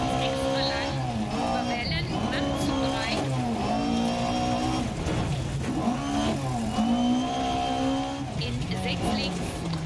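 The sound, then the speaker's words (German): A rally car engine drones loudly and continuously, its pitch rising and falling with revs and shifts, with a slightly uneven, strained tone throughout. “Manchmal hört sich der Motor wieder komisch an.”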